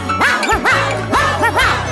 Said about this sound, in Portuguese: O cachorrinho tem um jeito maroto, seu latido é bem legal.